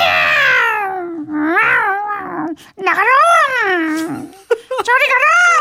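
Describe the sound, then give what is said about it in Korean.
A voice loudly imitates a startled cat family yowling in alarm in an apartment's underground parking garage: several drawn-out, wavering cries that rise and fall in pitch, back to back, with a shouted word mixed in. “그래서 아파트 지하 주차장으로 기어 들어갔더니, 고양이 가족이 저를 보고 놀랬는지, 아!”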